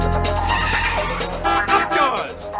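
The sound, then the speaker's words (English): Tires screech loudly as a car skids hard by subway steps, almost hitting a man walking, a sustained high squeal with engine rumble beneath, sliding for a couple of seconds as it brakes to a stop. “guy's just there, just like he's just walking, and then the car hits, almost yeah. hits him”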